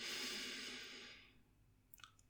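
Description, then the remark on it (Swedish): A single slow, airy breath, soft, that trails off over about a second into near silence, followed by a couple of faint, brief tones. “Andas in, andas ut igen. Andas in.”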